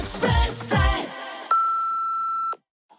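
An answering machine's single steady electronic beep, a flat mid-pitched tone lasting about a second, sounds on a radio show after a short burst of low musical or vocal sound, then cuts to silence.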